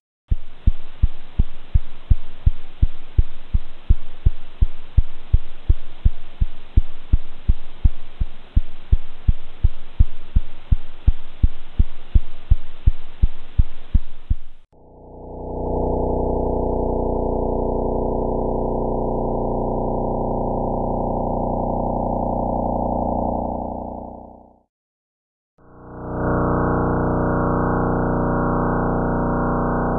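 A steady train of rapid, regular thumping pulses, sonified radio pulses of pulsars (rapidly spinning neutron stars) from NASA recordings, gives way to a dense low buzzing drone, a brief silence, then the drone returning. No voices.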